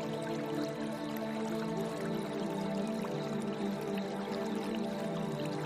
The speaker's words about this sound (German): Leise ist das Plätschern des sanft fließenden Wassers zu hören. Nur ein paar Meter und wir haben seine Mündung erreicht.